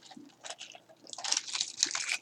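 Someone sips water, with soft wet mouth clicks building into a louder gulping, slurping stretch and ending in a sharp little click. No one speaks.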